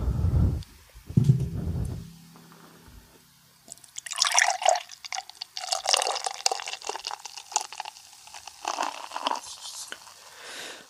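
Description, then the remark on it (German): A new beer made with cryo hops pours into a glass with a bright, bubbly splashing that runs for several seconds, after a couple of low thumps and clinks at the start. “Ach, dieses schöne Plätschern.”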